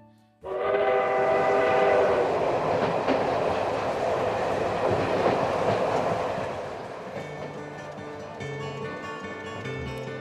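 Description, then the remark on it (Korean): A train rumbles loudly past on the rails, its horn sounding a sustained chord through the first several seconds before the noise eases into a steadier rolling clatter; no voices. “지금도 어디선가 어렴풋이 기차 소리가 들려오기라도 하면 어김없이 그날의 그 한 장면이 떠오르곤 합니다.”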